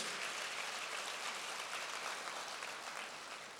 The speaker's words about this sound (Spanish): Alguien dele un aplauso a Jesús.